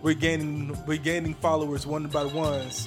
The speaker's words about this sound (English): That was my alarm.